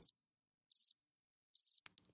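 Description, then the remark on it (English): Crickets chirp in three short, evenly spaced bursts of shrill, high-pitched trilling against silence, ending with a faint click. “crickets crickets that means there was nothing it was silent i mean we got no response no feedback nothing”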